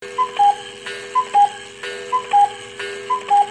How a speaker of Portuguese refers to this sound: Eu tenho um relógio de cuco que dá as horas.